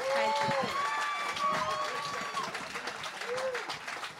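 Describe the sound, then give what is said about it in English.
An audience at a live comedy show applauds the hosts loudly and steadily for several seconds, dense clapping filling the space while voices cheer and whoop above it, with no single speaker standing out. “Give it up for your hosts.”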